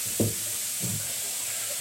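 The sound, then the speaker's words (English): A steady, fairly quiet hiss of water sizzling on hot sauna stones fills the whole moment, with two soft low thuds early on and no voices. “the first sound is the, uh, the sizzle.”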